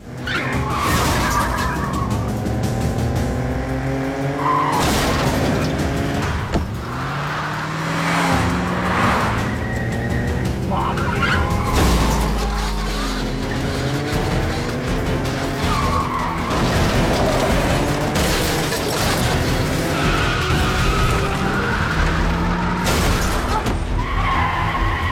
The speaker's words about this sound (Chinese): 另一边，刘岩疯狂逃窜，小花驾车紧追不舍。